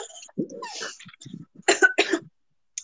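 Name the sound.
coughing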